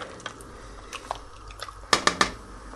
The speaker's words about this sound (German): Das Päckchen Sahne aufmachen. Na, so. Und einen Spritzer daran. Einmal umrühren.